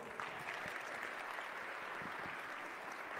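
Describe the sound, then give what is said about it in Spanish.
A crowd claps steadily, a dense, even patter of many hands that holds at a consistent loudness throughout, with no voices standing out; the applause is given to 'the fig tree that grew green again'. “Y también le vamos a dar un aplauso a la higuera que reverdeció.”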